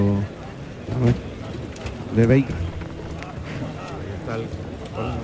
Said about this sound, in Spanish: El toro galopa ahora con fuerza hacia el centro del ruedo, donde pasa por el pitón izquierdo, le recorta ahí …, al que oímos como jalear toro y al caballo.